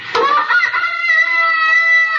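A rooster crows once, a bright harmonic call that starts with a sharp burst and then holds a long, steady, high-pitched note for about two seconds, loud and with no talking over it.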